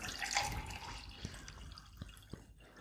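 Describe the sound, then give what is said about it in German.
Water pours briefly into a glass, a bright splashing trickle that fades into a few separate drips, with no voices. “Ach, ich würde es auch selber eingießen sonst.”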